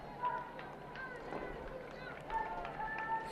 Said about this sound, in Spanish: Oímos los gritos del pueblo. Y numerosas banderas, como suele ser habitual, de Portugal, de España, como no, de Brasil, de, bueno, de muchos países que hay.